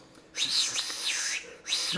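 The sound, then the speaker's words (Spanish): A person imitates a whistle, producing a few wavering, looping whistled tones that rise and fall, fairly loud, with brief gaps between them. “Chifle, chifle, güey, me da un chingo de miedo, perro.”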